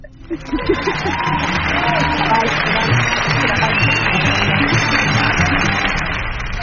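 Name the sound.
applause and cheering effect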